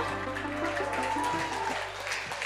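A crowd claps steadily for a few seconds, a dense wash of many hands in a large room, with faint voices mixed underneath.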